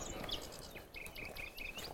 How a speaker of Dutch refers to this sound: Hier een nachtegaal, ja. weer keihard aan het zingen.